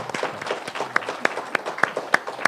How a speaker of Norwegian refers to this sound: Liten applaus der.